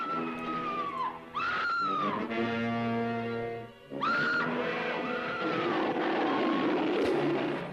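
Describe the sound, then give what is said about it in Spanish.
Two loud, drawn-out King Kong roars designed by Murray Spyback for the film's fight between King Kong and the Tyrannosaurus rex, each swelling and bending in pitch, separated by a low sustained droning rumble that carries on underneath. No one speaks. “Música de Max Steiner y en un momento dado desaparece y aparecen estos dos rugidos diseñados por Spyback.”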